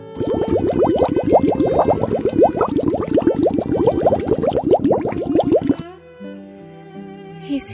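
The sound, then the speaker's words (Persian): Water in a watering can in the corner of a balcony bubbles and gurgles loudly and steadily for about six seconds as air is blown through its spout, then stops abruptly, leaving a few soft musical tones. “رفت و توی لوله آب پاشی که گوشه بالکن بود فوت کرد آب توی آب پاش قلقل صدا کرد”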